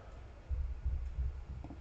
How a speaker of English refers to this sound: oops, sorry, clicking buttons over here.